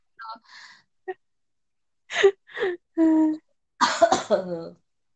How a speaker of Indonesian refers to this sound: ya Allah, batuk bu aja. Tahuan kan umurnya kalau kayak gini.